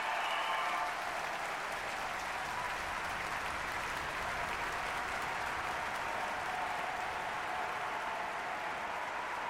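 A concert audience applauds a performance steadily in an hour-long ovation, a dense, even wash of many hands clapping that holds at a constant loud level throughout, with no voices standing out.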